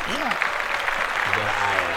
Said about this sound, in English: Yes, recently? her daughter turned two. Let's clap that yes.